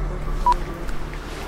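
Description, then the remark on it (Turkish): A single short electronic telephone beep, like a keypad tone as a call ends, sounds once against a low, steady background hum with no one speaking. “Telefonu kapattıktan sonra Serhat'ı da manavında gündelik dertleriyle baş başa bırakıp emektara doğru yollandık.”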